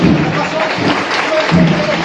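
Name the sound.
crowd applause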